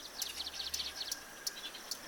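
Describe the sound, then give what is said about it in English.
A bird sings a quick series of high, bright chirps and trills, repeating in short bursts over a faint steady background hiss; no voices are present. “the MacGillivray's warblers who spend the winter in the hills of the city and spend the summer singing thousands of miles to the north.”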